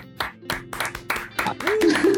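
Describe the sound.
Steady rhythmic clapping from a small group, with a voice rising in a cheer toward the end, as an audience applauds a guest.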